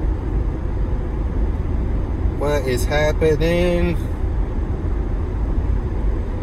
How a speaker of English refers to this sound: Okay, it's kind of bad when you get passed by a semi truck. I'll pick up the pace a little bit. Once he passes me, almost there. Still going, still going. There it goes.